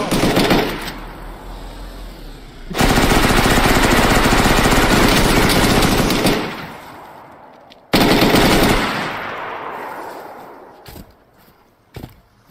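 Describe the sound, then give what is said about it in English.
A minigun in a video game fires in long, loud continuous bursts, a dense rapid roar of gunfire that stops abruptly, restarts, then trails off into fading echoes and a few scattered hits. “That minigun he's holding, by the way, is really cool.”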